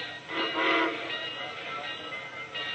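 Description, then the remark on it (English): A passenger train idles at a station as boarding is called and passengers with baggage-laden porters get on, with a steady mechanical hiss and rumble that swells briefly near the start, then settles into an even, moderately loud hum. No voices. “The florid man and his retinue of porters got on the train.”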